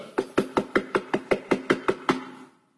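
A rapid series of about twelve firm knocks on a door, evenly paced, each with a short resonant decay, stopping abruptly after a couple of seconds. No talking.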